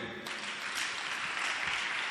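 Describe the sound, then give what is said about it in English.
A crowd breaks into steady applause, many hands clapping at once in a dense, crackling wash that holds at an even level throughout, with no voices standing out. “Clap for them.”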